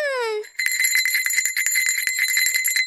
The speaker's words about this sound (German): Na und, wo ist die Glocke, die da läutet? Ja, da, guck mal.